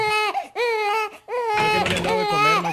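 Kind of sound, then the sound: sound effect, baby crying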